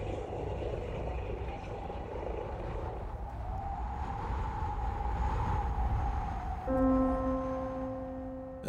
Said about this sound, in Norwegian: helikopteret med Hanne tok av i snøstorm på vei mot eh, St. Olavs hospital i Trondheim